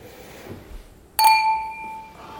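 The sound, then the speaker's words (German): A single bright clink of glasses of Spätburgunder Rosé wine touching in a toast, followed by a clear ringing tone that sustains and slowly fades. “Auch hier zum Wohl.”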